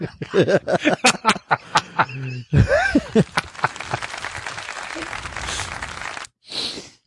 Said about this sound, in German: Wo ist der Applaus? Das reicht. Die Leute sind gegangen.